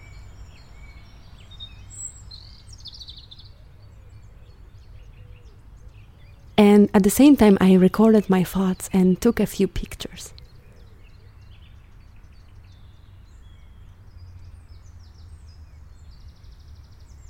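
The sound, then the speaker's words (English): Quiet outdoor park ambience in a green part of a city by a river: a low, steady background rumble with a few faint bird chirps, and a person speaking briefly over it midway through. “So I sat quietly in the green part of my city near the river and I recorded this soundscape.”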